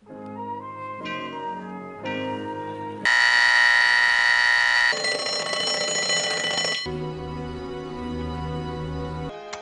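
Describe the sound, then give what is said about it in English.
An alarm clock set for four o'clock in the morning goes off: a few steady electronic tones, then a harsh, loud buzzing for several seconds, then back to ringing tones, with no one speaking. “His alarm is set for four o'clock in the morning.”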